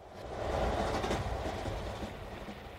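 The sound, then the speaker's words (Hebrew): A train rumbles past with a steady low roar and faint rhythmic wheel clatter, swelling early and holding loud before easing slightly. No one speaks. “הוא מתחיל עם הרכבת שנגלתה לנו בקטע השני באלבום”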